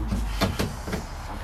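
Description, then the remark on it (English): A loud, rough car engine rumbles steadily outside, punctuated by a few sharp, sputtering bursts as it passes. No one speaks. “That car's engine sounds like it's. Oh my. Oh that my. car's about to explode.”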